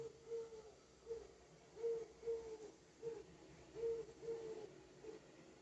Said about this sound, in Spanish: No sé, me despertó esta mañana. Esta mañana me despertó, no sé si es una lechuza, un búho, no sé. Mira, habla. Cuando yo hablo, él habla.